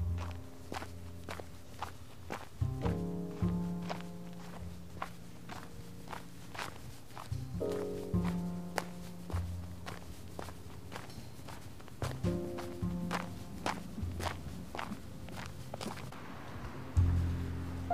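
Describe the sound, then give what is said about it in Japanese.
Steady footsteps crunch through snow along a sidewalk at an even walking pace, clear, with a low droning hum rising and fading in the background and no talking. The walker keeps to the white, snow-covered parts of a trodden, slippery sidewalk. “足音を聞いてください”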